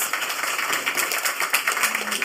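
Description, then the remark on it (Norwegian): An audience applauds to welcome panel guests, a dense crackle of many hands clapping at once that holds at an even, fairly loud level for the whole stretch, with no voices over it. “Gi de en applaus.”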